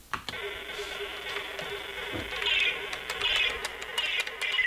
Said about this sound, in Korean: 옛날 컴퓨터 소리가 울려 퍼지는 이곳은